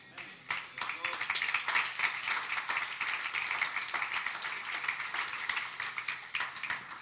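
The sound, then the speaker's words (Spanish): An audience applauds, many hands clapping in a dense, steady patter that holds at an even, moderately loud level for about seven seconds. “Claro, y algunos aplauden temerosamente porque están pensando lo que tienen en su banco, pero eso que está en su banco también tiene dueño.”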